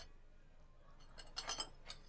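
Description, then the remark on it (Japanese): A short cluster of light clinks, like plates and cutlery knocking together as arrabbiata pasta is served onto oval plates, then one more tap a moment later, against a quiet background. “アラビアータ食べてもらっていいアラビアータいただきます。あ、あ、お皿をね。”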